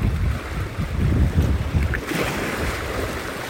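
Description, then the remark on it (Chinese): Sea waves wash and lap at the shore in a steady, rushing wash, with a low rumble and blustery wind noise; the surf brightens into a louder hiss partway through. No one speaks. “他在叫我注意他，这海浪在叫我注意他。”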